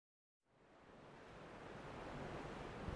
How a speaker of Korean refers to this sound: 멀리서 파도 소리가 들려왔다.